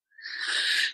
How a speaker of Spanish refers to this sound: Ay, hasta que por fin salió el estornudo. Salud. Salud, gracias.